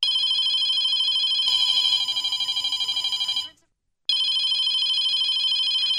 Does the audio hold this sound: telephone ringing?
yes